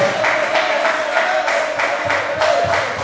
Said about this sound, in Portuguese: Vamos aplaudir o nome do Senhor. Aplauda, aplauda o nome do Senhor, que está sentado no alto sublime trono.